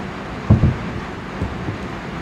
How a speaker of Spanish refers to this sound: esperen porque se largó una lluvia muy fuerte aquí en la cabaña,